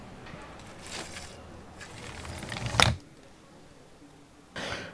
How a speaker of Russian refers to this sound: Ну вот, закрыл, лучше от этого не стало, тут появились всякие поликлинические шумы.